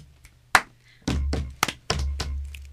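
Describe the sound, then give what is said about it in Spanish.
Body percussion in a quick pattern: a sharp finger snap, then claps and dull, low slaps on the legs, about eight hits in an uneven rhythm with no talking. “Chasquido, aplauso. Pierna, aplauso, pierna.”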